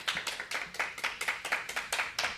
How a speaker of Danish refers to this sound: Og vi har sågar igen besøg af et lidt mindre publikum. Der er sikkert dem, der kan være plads til. Kan I lige, bare lige hurtigt give lyd, knips eller klap, så vi kan høre jer?